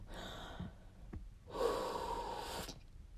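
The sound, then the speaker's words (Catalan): Someone takes a deep breath in, pauses, then lets out a longer, louder breath, airy, with no talking. “Tu som un mal dia, llavors a ver respira. jo respiro.”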